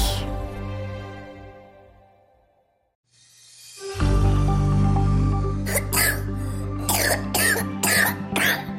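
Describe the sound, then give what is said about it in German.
A child with a respiratory infection coughs in a rapid, harsh fit of about half a dozen raspy bursts, fairly loud, over a steady humming tone in the background. “So wirklich gut klingt das nicht. Viele Kinder erwischt gerade das RS-Virus.”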